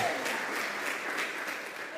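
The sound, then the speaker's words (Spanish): An audience at a church service claps hands loudly and steadily at the preacher's call to clap hard, a dense wash of overlapping claps filling the room with no pauses. “Dale palmas fuertes.”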